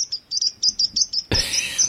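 A recorded sparrow sound played by an Amazon Alexa smart speaker skill: a sparrow chirps in a quick, steady series of short, high tweets, then breaks into a louder, denser burst of twittering with a brief thump at the start.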